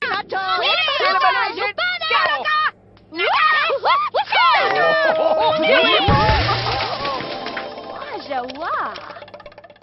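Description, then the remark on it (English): A video game character aging-up effect from The Sims (Sims 2 through 4), as a Sim ages into a new phase of life: chirpy, gibberish-like cartoon voices with swooping pitch slides, a held whistle-like tone midway, then a shimmering tail that gradually fades out. “That is the sound of a character aging up to a new phase of life in which game?”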